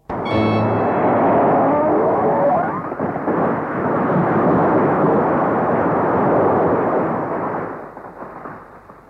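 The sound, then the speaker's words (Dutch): A thunderous roar of a temple roof collapsing, full of Philistines, after its pillars are pushed hard: a loud, dense rumbling crash that starts abruptly, holds steady for about eight seconds, then tapers off. No one speaks. “En met donderend geraas stort het dak waarin al die Filistijnen zitten naar beneden.”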